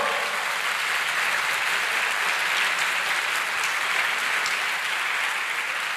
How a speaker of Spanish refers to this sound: ¿Lo entendieron? ¿Cuántos lo entendieron? Entonces dele fuerte ese aplauso al Señor.